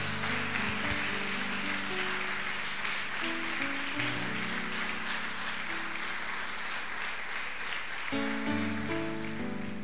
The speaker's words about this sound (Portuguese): Você pode aplaudir ao Senhor então, em nome de Jesus?